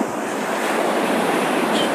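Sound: wind noise on microphone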